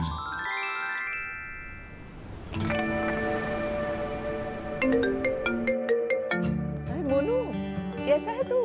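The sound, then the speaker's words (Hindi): A bright, melodic phone ringtone for an incoming call plays, its chiming notes repeating in a steady pattern, with a voice briefly rising over it near the end. “corona virus के चलते आजकल मम्मी से सिर्फ फोन पर ही बात हो पाती है लेकिन ये कॉल्स वीडियो कॉल्स घंटों चलती हैं”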